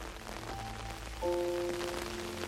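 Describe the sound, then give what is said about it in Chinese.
Steady rain patters on an umbrella in a dense, crackling hiss of many small drops, with soft sustained musical tones rising in behind it partway through. “淅沥淅沥，雨滴打在雨伞上。”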